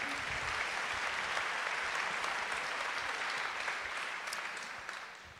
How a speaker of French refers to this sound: Voilà, applaudissez-la très fort.